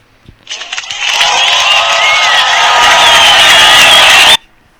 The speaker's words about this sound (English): That, that's the actually the end of the debate session, and I am late on actually pressing the soundboard to give these guys a round of applause for that entertaining debate session, even though they tried to veer the topic to another thing.